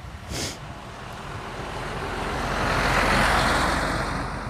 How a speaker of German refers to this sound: hey, hey, hey, bleibt hier, da kommt der LKW, kommt her